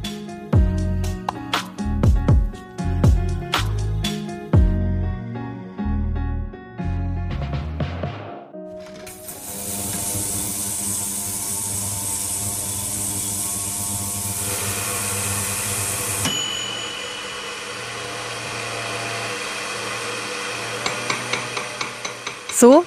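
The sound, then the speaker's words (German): Sharp metallic hammer taps from goldsmith's tools ring out in an irregular rhythm in a goldsmith's workshop, then give way to a steady roaring hiss of a Bunsen burner, which softens later as faint clinks return. “hört sich das an, wenn in der Goldschmiede”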